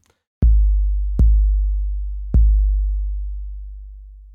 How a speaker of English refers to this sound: take the kick drum that's on that, uh, that um, drum machine and change its release time so that it takes a long time to decay to nothing and you will hear it sound out in a way that has the thump of a kick drum, but also the sustain of a bass line.